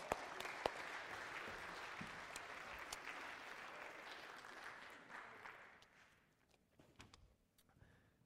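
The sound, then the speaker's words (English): A church audience breaks into steady applause for a pastor, a dense wash of clapping that holds for several seconds and then thins out, leaving a few scattered claps and faint rustling. “Give Pastor Jamie a round of applause.”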